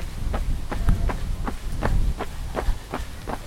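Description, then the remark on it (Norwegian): Steady jogging footsteps, about ten soft thuds in an even running rhythm over a low rumbling background, with no talking, as people run toward a place called Kilden, by a hill up toward Ødøya. “Eh, så vi springer bort mot noe som heter Kilden.”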